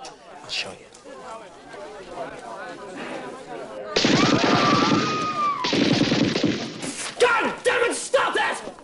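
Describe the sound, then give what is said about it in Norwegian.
A man's voice imitates machine gun fire: after a few softer vocal noises, loud rapid rattling bursts of mouth-made shots run for several seconds with sharp crackling spikes. “Lage maskingeværlyd?”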